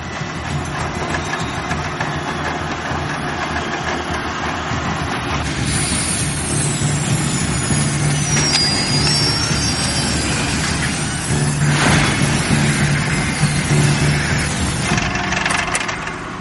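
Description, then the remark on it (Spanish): A drill bit, entering at an angle and being pushed deeper downward, grinds steadily against something hard, a loud, continuous rasping roar with a low mechanical hum and a brief high-pitched squeal partway through. No one speaks. “Esto suena a que está pegando contra algo duro.”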